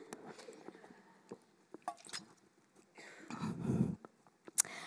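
A speaker takes a quiet small sip of water: soft wet mouth clicks and lip smacks, then a brief muffled gulp, with no talking.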